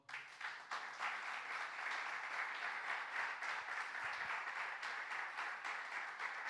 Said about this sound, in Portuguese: Eu quero pedir que vocês dêem um grande aplauso ao Senhor.